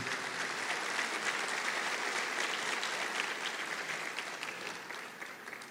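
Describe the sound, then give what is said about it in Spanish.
An audience applauds the Lord steadily, a dense, sustained wash of clapping that holds for several seconds and eases off slightly toward the end. “Dele un aplauso al Señor ahí donde usted está, al Señor.”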